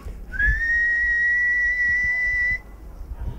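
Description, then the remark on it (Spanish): A loud human whistle rendering the word "hello" in Silbo Gomero: one quick upward slide into a steady held tone lasting about two seconds, then stopping abruptly over a quiet background. “puedes pronunciar hello y lo silbas hello.”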